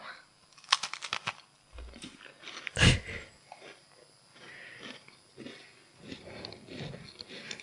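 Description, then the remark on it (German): Crisp crunching as someone bites into a dry snack with rucola and grana, a burst of crackly bites followed by a loud crunch, then softer chewing continuing with faint mouth noises. “Also, äh, ich probiere es jetzt mal, kann mhm.”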